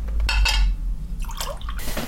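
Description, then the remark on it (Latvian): Elderflower drink is poured from a jug: liquid splashes and trickles in short bursts, with a faint clink of dishware and a low background hum; no one speaks. “Viņš mani cienā ar plūškoka dzērienu.”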